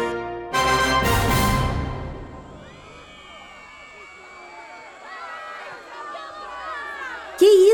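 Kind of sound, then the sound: crowd, crowd of women shouting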